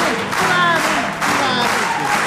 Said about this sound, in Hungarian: Köszönjük a tapsolkodást